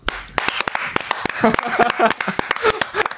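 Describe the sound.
A short burst of applause: quick, irregular hand claps from a few people, with voices chattering and laughing over the claps partway through.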